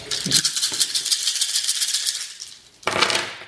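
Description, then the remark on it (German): Dice are rolled for a dodge in a game: they rattle and clatter in a dense, bright burst for over two seconds, then a brief pause and a second sharp rattle at the end. No one speaks. “Das heißt also, du kriegst plus zwei Würfel zum Ausweichen, weil es dir die Deckung leichter macht, auszuweichen.”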